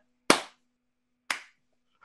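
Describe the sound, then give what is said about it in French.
Two sharp, loud hand claps about a second apart, each ringing briefly before fading, with a faint steady hum underneath and no talking. “Puis là, euh, je pousse les enfants pour être sûr que ce ne soit pas eux autres qui reçoivent des applaudissements.”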